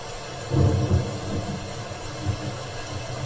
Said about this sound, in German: Scheiß Regen, ich höre doch kaum was.